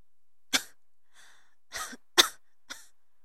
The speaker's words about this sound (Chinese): 女子捂住嘴。剧烈的咳嗽起来。